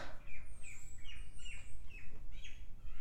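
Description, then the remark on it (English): Birds chirp repeatedly in short, high tweets and trills over a steady low rumble of background noise with no talking. “Are the birds too loud in the background?”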